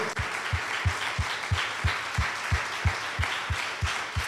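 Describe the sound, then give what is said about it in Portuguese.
An audience applauding in praise of Jesus, a dense wash of many hands clapping with a steady rhythmic beat underneath, roughly three strong thumps per second, moderately loud and without speech. “A Ele toda a honra e toda a glória, nós podemos aplaudi-lo, nós podemos exaltá-lo, podemos engrandecê-lo.”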